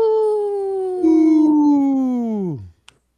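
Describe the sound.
Voices imitate a wolf howl: one long, loud howl slowly sliding down in pitch, a second voice joining partway through, then cutting off abruptly near the end.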